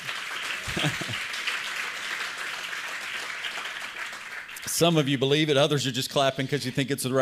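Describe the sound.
An audience gives a few seconds of steady, restrained applause, like the polite clapping at a golf match. It fades out as someone starts speaking loudly.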